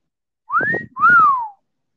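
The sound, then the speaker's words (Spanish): A person whistles two clear notes in quick succession, the first rising and the second sweeping up then sliding down, like an amazed wolf whistle, fairly loud with nothing else around. “Y cuando vio lo que tenía delante de él, silbó”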